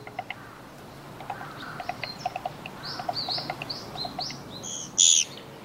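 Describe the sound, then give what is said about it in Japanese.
Calls of a Japanese pygmy woodpecker, a sparrow-sized woodpecker and the smallest in Japan, among light chirping from several small birds, ending in one loud, harsh, squeaky 'giii' buzz against a faint outdoor hiss. “今頃から冬にかけてのコゲラはシジュウカラやメジロエナガなどと一緒に行動することがあります異なる種が入り混じった群れですから混群と言います地味なルックスのコゲラはこれら目立つ鳥の中に紛れてしまいがちですがギーッというこの声とコツコツと”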